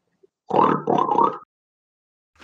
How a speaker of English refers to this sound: Then I hear a uh, okay rustling, and all of a sudden I hear a pig.